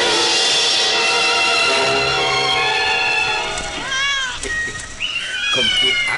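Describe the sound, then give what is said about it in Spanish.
A voice imitates a cat, starting with a long drawn-out whiny meow and following with several shorter rising and falling mews, loud, with no talking. “de manera que lo convierte en gato para que tome la leche.”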